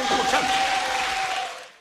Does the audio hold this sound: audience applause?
yes